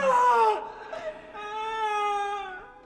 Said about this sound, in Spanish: Aún permanecía sentado cuando oí voces abajo en el patio. Unos gritos angustiados de mujer.